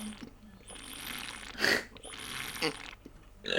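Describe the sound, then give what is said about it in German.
Noisy, airy sucking sounds drawn through the straw mouthpiece of an AR drinking bottle, two longer slurping pulls with gurgly bursts, fairly loud, with no talking. “ja, ja, dieser Sound ist schon ein bisschen blöd, aber, aber das Ding ist halt, wenn du irgendwo stehst und an dieser Flasche ziehst, dann wissen alle anderen, ah, okay, weird flex, but okay, er hat eine AR-Flasche.”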